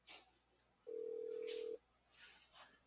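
A phone's incoming-call ring: one steady, mid-pitched electronic tone held for nearly a second, loud against a quiet background with soft rustling and faint breathy noise before and after.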